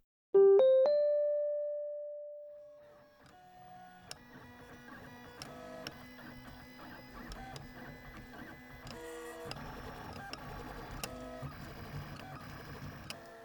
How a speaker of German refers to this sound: Schicht für Schicht entstehen in einem 3D-Drucker nahezu beliebige Formen.